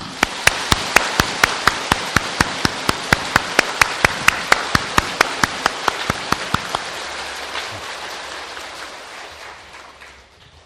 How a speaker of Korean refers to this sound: 사부 대중은 이 삼이 삼인이가 아, 한 사람도 나고자가 없이 예, 대도를 성취하도록 박수를 한번 쳐주시죠.